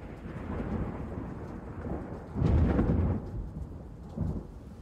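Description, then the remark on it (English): A thunderstorm rolls directly overhead with steady rain hissing throughout, a deep roll of thunder swelling loudly in the middle before fading, then another shorter rumble near the end. “The second storm came with twice the ferocity of the first one. It rolled right over the top of us.”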